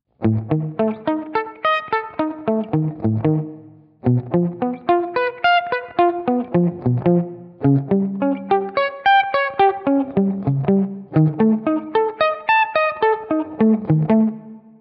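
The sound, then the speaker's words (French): Distorted electric guitars play a chord pattern that climbs steadily upward, repeating in four loud, even cycles of about four seconds each, with no voices; a second guitar takes up the chord structure and shifts it progressively higher. “Ce qui est intéressant, c'est la deuxième guitare, qui va dans un premier temps reprendre cette structure d'accord et la décaler progressivement en montant dans les aigus.”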